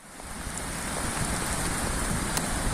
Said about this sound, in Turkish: Sağanak yağış hayatı felç etti, evler, iş yerleri suya gömüldü. İlçede hayat durma noktasına geldi.